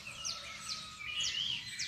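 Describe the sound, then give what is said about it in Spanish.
Several birds chirp and twitter together in a steady outdoor chorus in the oak trees of a house garden, their quick high-pitched calls overlapping, with no voices present. “Y con esos robles, uy, la cantidad de pájaros.”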